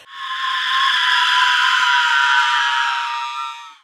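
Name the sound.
women screaming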